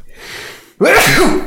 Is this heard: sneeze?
yes